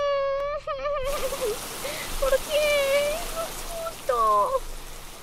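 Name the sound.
sudden rain falling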